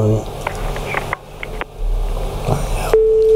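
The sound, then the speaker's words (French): After some clatter and handling noise, a steady electronic telephone busy tone comes on near the end as the phone call hangs up, clear and fairly loud over a faint background. “Le téléphone a raccroché.”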